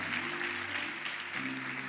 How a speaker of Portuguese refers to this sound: Vamos receber aí com um forte aplauso